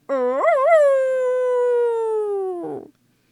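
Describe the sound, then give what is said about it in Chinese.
A single long howl from the wolf in a children's story about a little pig. It climbs quickly with a couple of wavering bends, holds a steady tone for about two seconds, then drops into a rough, gravelly ending before cutting off. “狼最后这么长长的嚎叫了一声”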